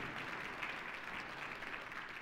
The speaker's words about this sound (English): So, uh, in in person church, would you welcome our online church with a with applause? Welcome.